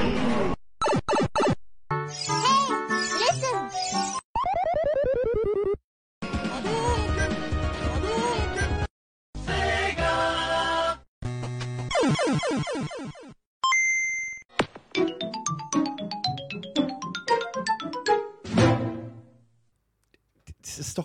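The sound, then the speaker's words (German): A rapid-fire montage of retro video game sound effects: buzzy electronic bleeps, rising and falling pitch sweeps, short chiptune jingles and a sustained tone, loud and separated by brief pauses. “Wenn ihr in diesen Zeiten gedaddelt habt, dann erkennt ihr die meisten Sounds, die jetzt kommen.”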